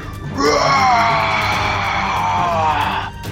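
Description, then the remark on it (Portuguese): A person voices a fake orc battle cry: one long, loud, rough yell that swoops upward, then holds steady for nearly three seconds before cutting off. “Ele dá, ele dá como se fosse um grito de guerra, como se fosse um battle cry.”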